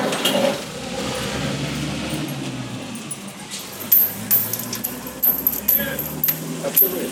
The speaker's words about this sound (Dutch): Maar dan komt hij terug om het hek open te doen.